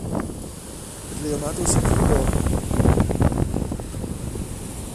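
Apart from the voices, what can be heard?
sea waves and wind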